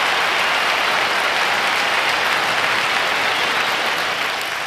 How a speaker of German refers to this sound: Von daher ganz, ganz lieben Dank und nochmal einen kräftigen Applaus für dich.